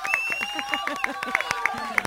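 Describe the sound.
A short burst of audience applause: quick, steady claps rattle along, mixed with raised voices and cheering from the crowd.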